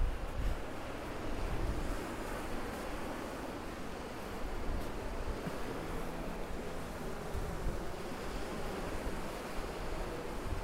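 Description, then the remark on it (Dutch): Steady roar of North Sea waves washing onto a shore, with gentle swells rising and falling beneath a constant wash of wind noise. No voices; the surf fills the scene, continuous. “ik ruik de zee.”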